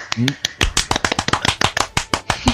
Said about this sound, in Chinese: 又经历了一回啪啪，非常好，鼓掌的很有力力度啊，非常好。